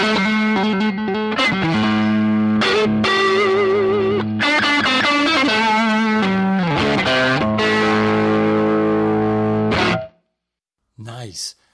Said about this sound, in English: That's obviously an overdriven strat through that Twilighter. Killer, killer stuff.